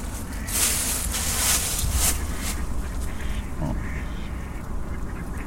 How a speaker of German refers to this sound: Oh, hier haben wir Enten. Die sind ja auch gruselig, nicht?